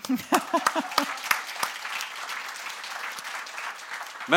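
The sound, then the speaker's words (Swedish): A burst of applause, many hands clapping in a steady, dense crackle that holds for several seconds, with a bit of voice or laughter audible at the very start. “Jag tyckte det var det är värt en applåd.”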